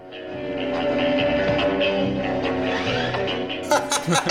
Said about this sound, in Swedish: det låter ju verkligen som att någon flyger iväg med en drönare eller något. Hur kan man ha missat det?